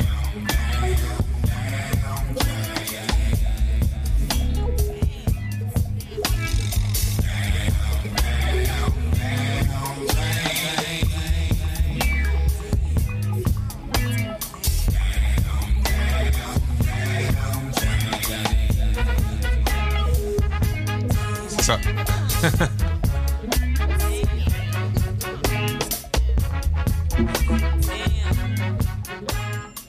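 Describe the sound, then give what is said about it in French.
A reggae-tinged hip-hop track plays at full, steady volume, driven by a deep, heavy bassline with layered instruments and horns over a steady groove, with no talking over it. “moi j'entends des gens qui ont, écouté beaucoup de reggae et qui ont fait un morceau influencé par le reggae”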